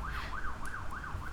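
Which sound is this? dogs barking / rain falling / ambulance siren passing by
ambulance siren passing by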